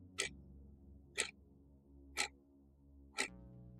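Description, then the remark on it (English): A clock ticks steadily, four sharp, evenly spaced clicks about a second apart, over a low, quiet background hum with no voices. “let's start the clock.”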